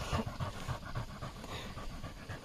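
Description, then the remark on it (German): A dog pants rapidly and steadily outdoors, a rhythmic series of quick breathy huffs repeating throughout with no one speaking. “wir sind wieder heute draußen mit dem Hund. Ja. Deswegen genau. das ewige Gehechel und die ganze Zeit das Werfen und so.”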